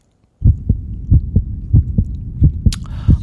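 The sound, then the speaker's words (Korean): A heartbeat thumps steadily in muffled lub-dub pairs, deep and low, repeating about every second with no voices, and a brief soft hiss near the end. “아, 심장 뛰는 소리군요.”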